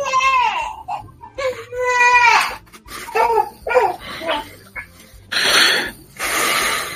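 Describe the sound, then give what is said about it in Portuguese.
An infant cries in repeated wailing bursts with rising and falling pitch, loud, separated by brief gasps and whimpers, with a harsher, strained cry near the end. “Dá leite pra essa criança, dá peito. Mais leite do que ela já tomou hoje?”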